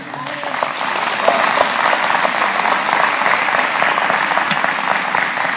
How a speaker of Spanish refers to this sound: Un aplauso al Señor.